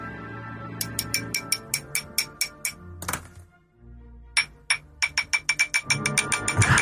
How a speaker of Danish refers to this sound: men altså, jeg har sådan lyst til at øh, slå på glasset. Ja. Og lige... Øh... Skal du ikke have en øh, bedre teske? Ja, den her.